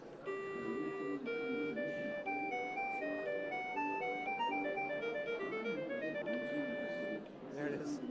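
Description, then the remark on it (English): Music notation software, showing braille music together with the print staff, plays back a piece from the beginning: a simple melody in a thin, synthetic tone, stepping steadily from note to note for several seconds before stopping just short of the end. “So the print and the braille together and we can return to the beginning and let's listen to the piece.”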